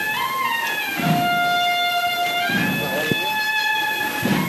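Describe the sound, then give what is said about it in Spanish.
The youth band of La Cigarrera plays a slow, solemn classic processional march for a paso de misterio as it circles a fountain in a plaza, with sustained brass chords shifting in pitch over steady, heavy drum beats that land about every second and a half. “Una marcha clásica, como las que se le suelen interpretar a este paso de misterio pese a ser la banda, digamos, juvenil de La Cigarrera, suena magníficamente.”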